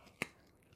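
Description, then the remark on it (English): A single sharp, close-up crunch as Legs, a dog, bites down on her chew right next to a microphone, brief and loud against a quiet background, with no one talking. “if you can hear the crunching, Legs is very happy with her chew, and she's right next to my microphone with it.”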